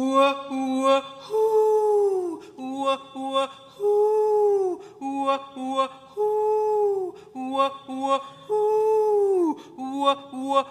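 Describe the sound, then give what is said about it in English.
Slowed-down bird calls, stretched into drawn-out, swooping tonal cries with falling pitch, repeating in close succession and picking up pace, loud and clear with no talking. “It involves slowed down bird calls that get faster”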